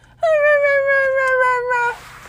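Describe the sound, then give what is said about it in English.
A female dog lets out one long, whining howl lasting under two seconds, steady and slightly falling in pitch, fairly loud, with a faint low hum behind it. “and then she was barking, and I can't stand it.”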